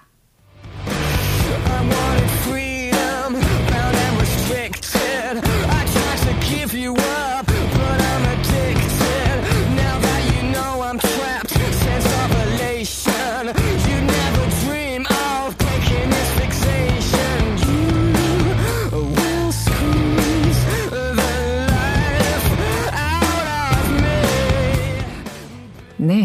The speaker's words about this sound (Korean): 아주 강력한 사운드를 오늘도 이어서 들어보셨습니다. 어, 디스토션이라고 하나요? 그 음향의 어, 이펙트를 준 게 이제는 좀 익숙해지는 것 같아요.